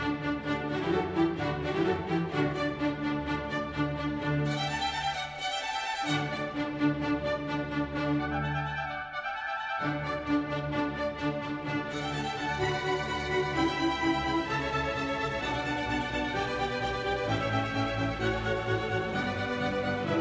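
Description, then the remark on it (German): A full orchestra plays together in a dense, sustained passage, with brief quieter breaks where the low parts drop out before the whole group returns at steady volume. “hörst, wie wunderbar es ist, wenn diese Instrumente in einer Einheit zusammenspielen, wo jeder genau seinen Teil spielt und wie das faszinierend ist, dass das so aufeinander abgestimmt ist, dass das wirklich funktioniert, dann hört sich so an.”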